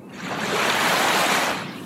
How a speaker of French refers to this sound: Ah, des vagues. Ah ouais, c'est cool ça.